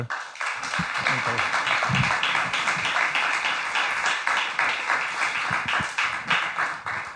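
An audience breaks into steady applause, dense overlapping hand claps sustained at an even, fairly loud level for several seconds, with a few faint voices mixed in.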